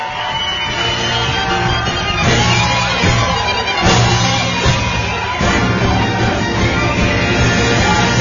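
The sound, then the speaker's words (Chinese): A crowd applauds and cheers as a performer comes on stage, a dense, steady roar of clapping with shouts and whoops mixed in, staying loud from start to finish with a few sharper bursts. “个海大夫上台， 掌声自然来”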